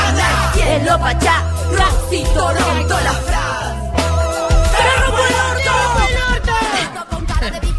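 A song plays loudly and continuously, with steady bass and sung vocals carrying the melody, while a voice talks over part of it.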